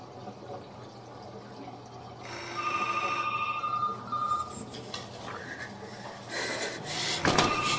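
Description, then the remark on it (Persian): A telephone rings with a steady electronic warble that starts a couple of seconds in and carries on over a low hum, with some louder clattering noise near the end. “بر تلفن رو فکرم شفیه داره زنگ میزنه ببین”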